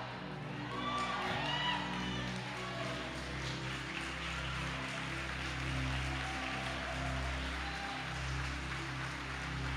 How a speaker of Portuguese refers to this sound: Se é para Ele, aplaude com mais força.